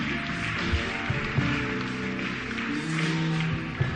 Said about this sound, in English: Why don't you clap for them as they come to Jesus? Clap for them from upstairs.